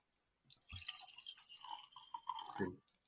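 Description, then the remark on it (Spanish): A drink glugs and trickles from a bottle in a short, uneven pour lasting about two seconds, fairly quiet, ending with a brief dull knock as the pour stops. “Salud también por eso. Se me acaba la botella, cabrón.”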